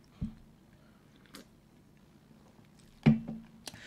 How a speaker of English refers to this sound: Excuse me. Uh, give me one second. I'm taking a sip of my soda.